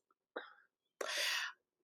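A breathy sniff: a short soft intake followed by a longer, sharper hiss of air drawn through the nose, heard alone without speech.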